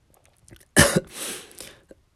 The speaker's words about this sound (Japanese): 咳もめんどくせえな。うん、咳出ちゃって喉めんどくせえ。